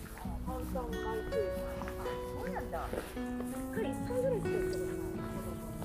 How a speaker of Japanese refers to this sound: 今ちょうどね、トレイルコースでワンちゃんたちを散歩してる方たちがいて、ちょっと声が入ると思います。